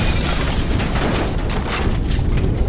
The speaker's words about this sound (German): Peng, zack, Kugelblitz. Das Schrettle lenkt den Blitz, peng, voll in das holzfressende Eisenmonster